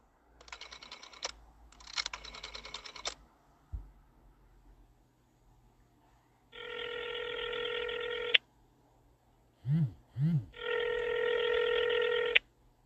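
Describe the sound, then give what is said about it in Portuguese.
An old telephone being dialed to place a call, with two quick bursts of clicking dial sounds, followed by two long, buzzy ringing tones separated by a pair of short chirps; fairly loud, no voices. “Está chamando.”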